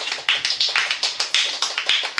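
Listeners give a quick, steady run of hand claps, about a dozen sharp slaps in a brisk uneven rhythm, bright and fairly loud with no voices over them.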